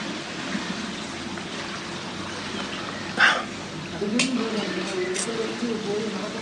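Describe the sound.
A stew bubbles in a pot over a campfire, a steady hiss and simmer broken by a few sharper pops, with a faint whining, voice-like tone creeping in toward the end.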